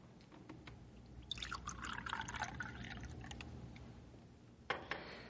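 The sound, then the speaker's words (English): Coffee pours steadily into a cup for a few seconds, a bright rising trickle, followed by a couple of soft clinks at the end. “Here, I pour you one more cup of coffee,”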